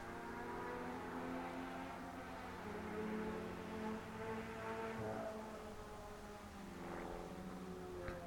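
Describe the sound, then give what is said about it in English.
A propeller plane drones steadily overhead, its low engine hum rich with buzzing harmonics and rising slightly in loudness midway before holding level. No voices are heard. “So maybe just a loud exhaust on a motorcycle who's not going too too fast. In an airplane. A prop plane of all things.”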